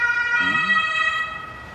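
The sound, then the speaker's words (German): An ambulance siren wails steadily with strong harmonic tones, fairly loud at first and then fading slightly as it moves away, with faint traffic rumble beneath. “Hoffentlich geht es gut für den Menschen, der gerade einen Rettungswagen kriegt.”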